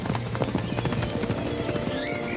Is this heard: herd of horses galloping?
yes